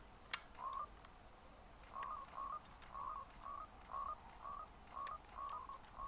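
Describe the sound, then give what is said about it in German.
A video game frog in a tree croaks over and over in short, chirpy blips, repeating in a steady rhythm about twice a second. The calls are fairly quiet, with no one talking. “Ich sehe den. Da, wo ist der? Dieser Frog.”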